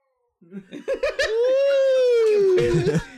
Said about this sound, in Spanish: no te deja contar, pinche gato.